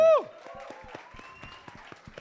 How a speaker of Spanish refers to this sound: Pero apl aplauden al comediante emergente, ¿no? Y sí, un aplauso para el comediante que viene.